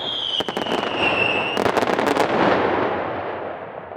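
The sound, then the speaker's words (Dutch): A firework rocket whistles as it rises, then bursts high in the sky into a rapid crackling cascade of sharp pops that fades into a long rumbling tail. Loud, with no voices. “Daar zit de sas met de metalen, die de prachtige kleuren geeft.”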